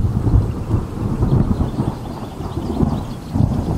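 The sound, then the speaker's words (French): A deep, rolling rumble of thunder from a lightning strike continues throughout, loud. A soft hiss of rain sits underneath, with no voices. “D'ailleurs, sachez qu'un éclair n'est rien d'autre qu'un immense choc électrique.”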